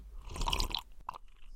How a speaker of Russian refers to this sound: … делает глоток кофе.